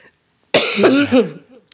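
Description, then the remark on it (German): A single harsh cough bursts out abruptly, then trails into a rough, gravelly throat clearing before falling quiet. No one speaks. “erkältet ist oder husten muss oder lachen muss.”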